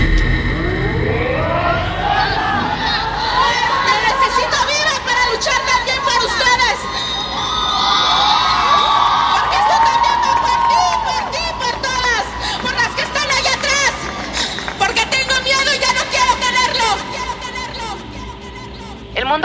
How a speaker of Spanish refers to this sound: Además, que se cumple el primer año de aquella manifestación en donde miles de mujeres levantamos la voz pidiendo ser escuchadas.